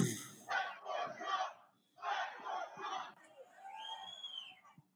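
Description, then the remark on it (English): A large crowd chants a short slogan, seemingly "Fight for Trump", in unison, two loud rhythmic bursts of massed voices followed by a rising roar of cheering, energetic. “Fight for Trump, I think is what they're saying.”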